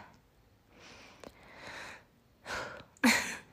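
A slow, deep inhale drawn in over a second or so, followed by a couple of strong, breathy exhalations, fairly loud, with no talking.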